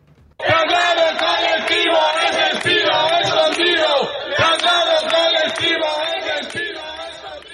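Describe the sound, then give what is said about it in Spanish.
A large crowd of Digitex telemarketing workers, protesting a transfer of activity in front of a hotel on a Thursday morning, chants the slogan "Traslado colectivos despido escondido" in unison, loud, the shouted words rising and falling in a steady rhythm across the whole clip. “Esta era una de las consignas que se coreaban en la mañana del eh, jueves por parte de los trabajadores de Digitex.”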